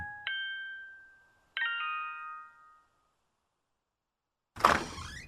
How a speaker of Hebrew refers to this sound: שמעתי לפתע את דלת הבית נפתחת וקראתי לעברה.